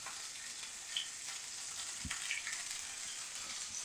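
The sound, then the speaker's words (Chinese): Pieces of squid sizzle and fry in a pan, cooking quickly and being flipped so they curl up, with a steady, bright hiss that holds throughout, broken by a single soft knock partway through. No one speaks. “好，Q 起来之后，我们就稍微翻个面，它就会卷起来了。”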